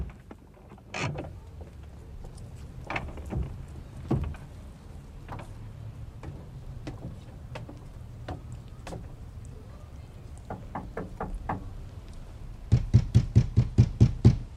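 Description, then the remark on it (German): A quick series of about seven sharp knocks on a door comes near the end, following scattered clicks and thumps over a quiet, rumbling room background, with no one speaking. “Moment mal, die Tür ist nicht abgeschlossen.”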